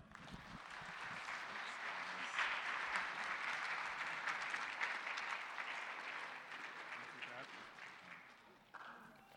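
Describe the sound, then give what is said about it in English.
A church audience applauds parents and their children after a prayer, steadily for several seconds, a dense, even wash of clapping that swells early, holds, then tapers off near the end with a few last claps. “You can sure applause them and sit down.”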